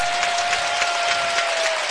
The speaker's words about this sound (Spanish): para Nikan Medley el protagonista ofensivo del partido Estudiantes. Ovacionado por el Palacio de Deportes de la Comunidad de Madrid.